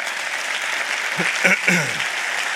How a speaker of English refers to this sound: I always appreciate you guys clapping, giving me a chance to catch my breath